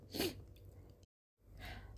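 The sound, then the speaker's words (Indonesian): A man allergic to cat fur gives a loud, breathy sneeze, followed by a brief moment of silence and then a second sneeze of similar sharp, hissing force. No talking. “Tapi nggak pernah bisa melihara karena mas alergi sama bulu. Hacim!”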